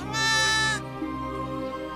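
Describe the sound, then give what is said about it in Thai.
A lamb grazing on grass bleats loudly: one drawn-out quavering cry with a bright, nasal tone that fades into a softer, wavering tail. No one speaks. “มันได้มองแล้วก็จ้องลูกแกะ ซึ่งกำลังเล็มหญ้าอยู่อย่างไม่รู้ตัว”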